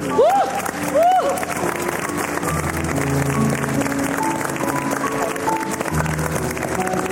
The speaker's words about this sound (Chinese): 现在我们所有人都起立为你鼓掌。